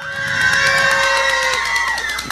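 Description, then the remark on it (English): A crowd of children cheers and shouts together in a sustained, high-pitched roar that holds steady for a couple of seconds before trailing off slightly. “Somebody give cheer.”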